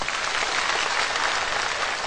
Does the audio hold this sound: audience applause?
yes